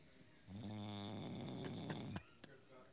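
A single drawn-out snore, loud, a buzzing rumble that holds steady for nearly two seconds before cutting off, followed by a couple of faint clicks.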